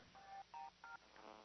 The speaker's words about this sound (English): I had to, sorry about that phone ringing.